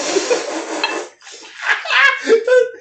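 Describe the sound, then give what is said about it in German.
A drink pours steadily into tumbler glasses for about a second, a continuous splashing stream, followed by people talking and laughing. “Gießen wir mal unsere Tumbler ein.”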